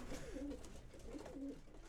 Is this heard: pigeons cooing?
yes